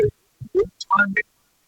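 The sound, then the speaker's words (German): A voice over a phone line breaks up into short, choppy fragments, with abrupt silent gaps between clipped bits of speech, as if the connection keeps cutting out. “Ja, ich, ich höre dich immer, immer wieder abgebrochen.”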